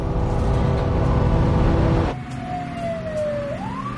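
An ambulance siren wails over the low rumble of the moving ambulance, heard from inside as it is about to reach the hospital, its tone sliding down slowly and then sweeping back up, loud with steady road noise beneath.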